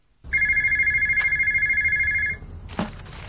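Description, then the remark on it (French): A telephone rings once in a tiny office, a long, steady electronic trill lasting about two seconds, loud, then stops with a brief clatter as if the handset is picked up. “Dans le minuscule bureau, le téléphone sonne une fois de plus.”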